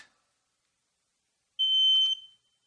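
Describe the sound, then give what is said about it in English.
A single loud, shrill smoke alarm beep rings out for under a second, a sustained piercing electronic tone that cuts off abruptly after near silence. “I have here a smoke detector. This is a smoke alarm.”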